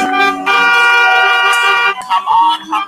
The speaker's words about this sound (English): Everybody honk those horns. Flash some lights.